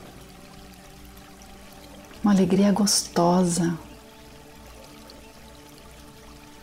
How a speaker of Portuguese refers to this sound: Agora a gente vai sair da cachoeira,